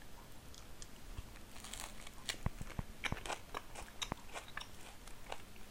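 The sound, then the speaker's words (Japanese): Crunchy food being chewed, with a series of sharp, crackly bites and crunches at an irregular pace, fairly quiet with no talking. “でも絶対さ咀嚼音って多分ほとんどの人が食わず嫌いだと思うよねそんなの嫌だって思うじゃん普通一般的には人が物を食べてる音なんて聞きたくないよって思う思うじゃない”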